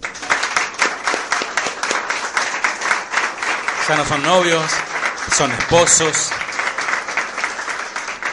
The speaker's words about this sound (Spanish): ¿dónde están los novios? ¿Vinieron los novios? Bien. Un aplauso para los novios.